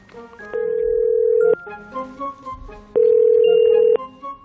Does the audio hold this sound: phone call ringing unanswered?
yes